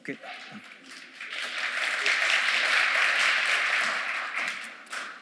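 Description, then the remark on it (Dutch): An audience applauds the pianists, the dense clapping swelling over the first couple of seconds into a loud, steady roar before easing slightly at the end, with a brief voice at the start. “Ook voor de pianisten.”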